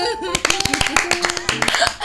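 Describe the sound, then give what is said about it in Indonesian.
A small group claps in a quick, uneven burst of sharp, bright hand claps lasting about two seconds, with voices and a bit of laughter mixed in underneath. “Tepuk tangan.”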